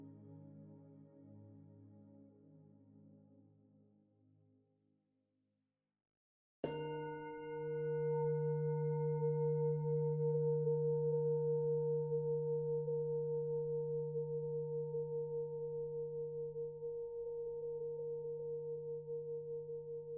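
A fading sustained tone gives way to near silence, then a single gong strike marking the end of an exercise rings out loudly and hums on for about fourteen seconds, its deep tone slowly pulsing as it decays. No one speaks.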